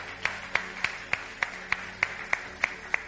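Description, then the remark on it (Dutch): An audience claps for itself at the speaker's invitation, steady rhythmic clapping in unison, about ten sharp claps evenly spaced at a brisk tempo, moderately loud, with no voices over it. “I want to invite you right now to put your hands together to yourself. Klap voor jezelf.”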